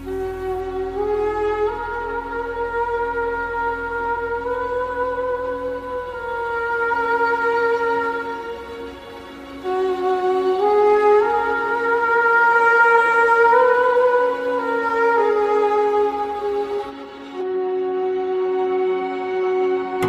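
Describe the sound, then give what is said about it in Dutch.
A deep, brassy ancient carnyx or cornu horn, a forgotten instrument brought back to life with an orchestra, holds long, swelling notes over a sustained orchestral backing, the pitch shifting slowly in loud, continuous phrases. “Samen met die geluiden en een orkest roept hij hen weer tot leven, zoals de karnix of de corna.”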